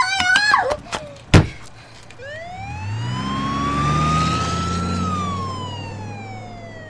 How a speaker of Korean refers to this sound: 구급차를 몰고 떠나버렸고 나는 쫓아가다 얼마 못 가 그 자리에 풀썩 주저앉고 말았다.